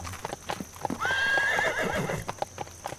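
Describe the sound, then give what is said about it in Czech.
Horse hooves clip-clop in a steady, uneven rhythm as horses are being prepared in Hrobice, while a horse lets out a loud, wavering whinny in the middle, with no one talking. “Ale nevadí nám kdykoliv maminky s dětma, turisti, který, nebo hosti hoteloví, kteří sem zavítají, tak nám vůbec nevadí, když se tady hodinu s náma dívají, jak ty koně připravují.”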